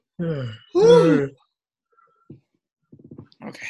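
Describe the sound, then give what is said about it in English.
A voiced yawn rising and falling in pitch, with a short groan-like onset and a longer, louder stretch, followed by a few faint, soft mouth sounds. “I shouldn't be yawning.”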